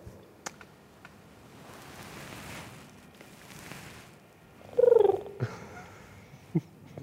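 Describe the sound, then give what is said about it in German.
A person's voice imitates a pigeon's coo: one loud, warbling low-pitched call about two-thirds through, after a soft breathy rumble, with a few faint clicks and taps around it. “Willst du noch einmal deine Taube machen zum Abgang?”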